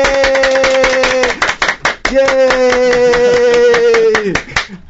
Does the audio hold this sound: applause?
yes